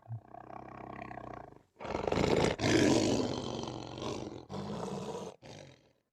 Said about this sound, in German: das nächste Tier, das dann auf dem Weg war, ist der Löwe, der König der Tiere.